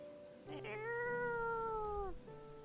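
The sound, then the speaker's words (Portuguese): A cat on a perch in a tall tree lets out one long, loud yowl, crying with all its strength for help, that holds steady for over a second before dipping in pitch at the end, with no talking. “De seu puleiro na árvore alta, Coma observava tudo e gritava com toda a sua força na esperança de que alguém iria ouvi-la e vir em sua ajuda.”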